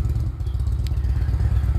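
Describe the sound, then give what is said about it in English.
A Harley-Davidson motorcycle engine cranks up and rumbles loudly as someone leaves, a deep, throbbing growl that holds steady throughout, with a brief sharp click partway through. “Motorcycle crank up.”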